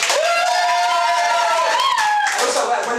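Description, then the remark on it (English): A comedy audience, asked for ten-out-of-ten applause, applauds loudly and steadily for three seconds, dense clapping mixed with cheering and a rising, sustained whoop or whistle riding over the top. “Ten out of ten applause”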